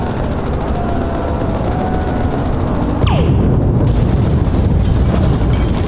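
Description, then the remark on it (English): Rapid, rhythmic short-range pulse weapon fire pulses over a dense, roaring barrage, then a descending whistle cuts in and heavy explosive blasts rumble loudly and continuously as two vehicles are destroyed; no voices are heard. “Selecting short range pulse.”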